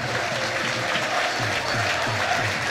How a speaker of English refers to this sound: Lots of noise here. The Crawley fans are pumped up and excited by this opportunity to go against this already storied Wrexham team.